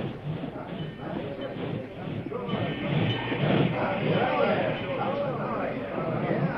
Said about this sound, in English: As the train came to a stop at the station in Rock Hill,